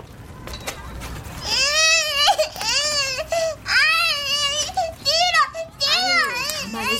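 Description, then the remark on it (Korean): Children's high-pitched shouts and squeals overlap in a lively playground, voices rising and falling in quick bursts over a steady bed of outdoor background noise. “그 말을 얼핏 들었을 때 나는 놀이터에 있었다.”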